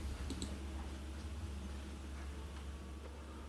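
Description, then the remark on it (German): Dice are rolled again and come up 90, rattling and clicking faintly, a quick cluster of small hard taps near the start and a few scattered clicks after, over a steady low hum with no talking. “und da habe ich eine 73 und da würfel ich nochmal.”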